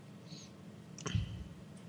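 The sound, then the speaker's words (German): A few soft keyboard clicks as someone types in a question and sends it, with one firmer keypress like hitting return near the middle and a faint tap just after; no one speaks. “Ja, ich habe getippt und abgeschickt.”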